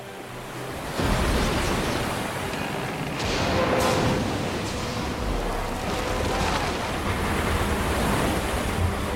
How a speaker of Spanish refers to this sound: El primer oficial que evita una colisión frontal con el iceberg, pero sus afilados bordes rasgan el costado de estribor. El agua empieza a entrar.